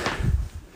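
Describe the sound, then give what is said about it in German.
A short pull of a shower curtain in the bathroom of the Promi Big Brother 2023 house: a quick swishing rustle of fabric with a faint rattle of rings, lasting under a second with no voices. “Das ist das Geräusch der Duschvorhänge.”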